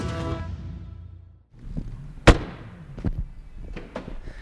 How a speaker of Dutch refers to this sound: En nog één keer dan. Zo lekker. Zo klinkt de deur zonder raamsteel.